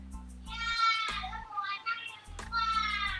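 High-pitched children's voices shout and call out in bursts, kids playing outside in Jakarta, heard from inside a bedroom, with a steady low rumble underneath.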